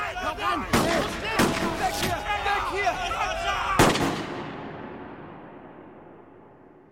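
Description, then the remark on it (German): Four sharp, loud pistol shots, fired by the Solaras at a group, crack at irregular intervals over a dense, chattering background of cries and noise, the last shot followed by a long fading echo. “Die Solaras feuerten Pistolenschüsse auf uns ab.”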